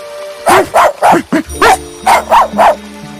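small dog barking

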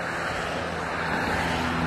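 street traffic

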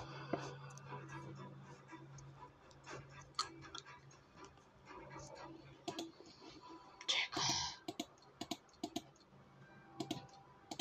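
computer mouse clicking

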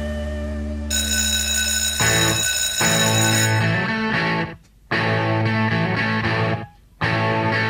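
school bell ringing

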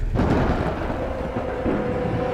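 thunder rumbling

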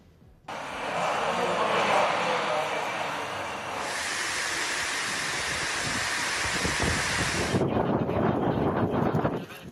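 strong storm wind blowing

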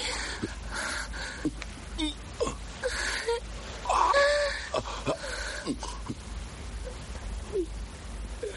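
woman crying

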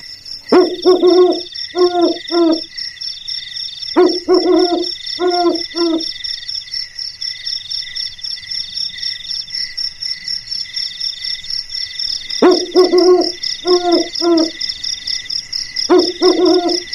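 owl hooting

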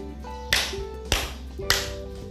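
three hand claps

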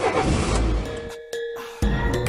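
car engine revving

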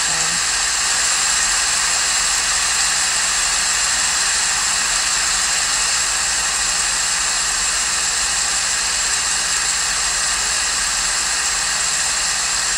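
rushing waterfall

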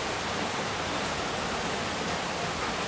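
rain falling

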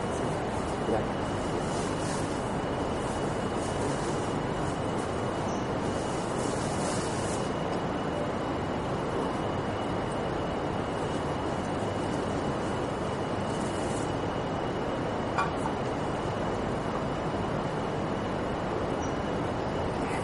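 flowing river

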